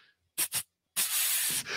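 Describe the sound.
A voice imitates water spraying from a pipe hit while drilling into a wall: two quick hissing bursts, a short pause, then a longer sustained spraying hiss, fairly loud, with no talking.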